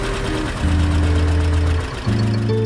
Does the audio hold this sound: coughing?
no